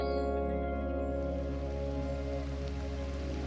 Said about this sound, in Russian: Но капли воды меняют планы шмеля – и вы слышите, как он отдаляется. Профи поливает последнюю клумбу.